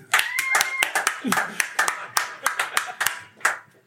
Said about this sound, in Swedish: Vi klappar högst i alla fall.